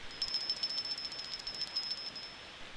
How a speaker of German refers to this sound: Max klingelt an der Klingeleitung und dann hört er auch schon durch das Dosentelefon die Stimme von Papa.